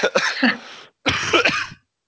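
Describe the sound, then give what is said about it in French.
Two rough coughs in quick succession, each a harsh raspy burst with a slight throat-clearing quality, separated by a brief pause, with no talking. “ah, il me fait rire, il me fait tousser.”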